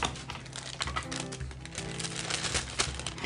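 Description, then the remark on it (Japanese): Dry rustling and crinkling of paper being handled, with quick irregular taps and crackles spread through the few seconds and no voices. “やっぱり今ねこの紙を”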